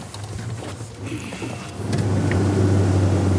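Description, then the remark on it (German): A boat motor is started after a day of fishing and rumbles with a steady low drone, then surges louder about halfway through and keeps running at a stronger, even hum. No one speaks. “So, machst du den Motor?”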